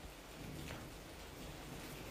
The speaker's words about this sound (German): Ach, ich weiß nicht, ob du es hören kannst. Ich sitze hier gerade und beobachte den Donner, höre dem Regen zu